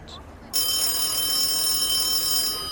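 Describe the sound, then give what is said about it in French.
After a brief quiet moment, the telephone of a race command post on a barge on the Seine in Paris starts ringing abruptly, a bright, steady, high-pitched ring that holds for about two seconds, fairly loud, with no one speaking. “Le téléphone du PC Course, installé sur une péniche sur la Seine, retentit.”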